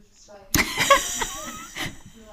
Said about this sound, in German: Alexa mischt sich auch noch ein.